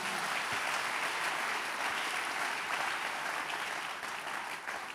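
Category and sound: crowd, audience clapping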